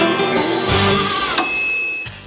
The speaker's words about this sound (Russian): Звук микроволновки есть у нас в джингле, в заставке кухни.